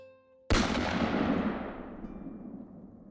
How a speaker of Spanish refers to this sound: ella oprimió el gatillo. El disparo alcanzó al tipo en la cabeza.